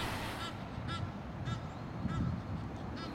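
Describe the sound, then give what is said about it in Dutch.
Egyptian geese honk in a noisy, repeated series of harsh calls, about five bursts spread across a few seconds over a steady low outdoor rumble. “En wat horen we nu? Ja, we horen nelganzen. Die zijn echt ontzettend druk op het moment.”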